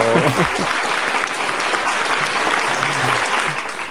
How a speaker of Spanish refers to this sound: justo me he acordado que tenía el efecto de aplauso.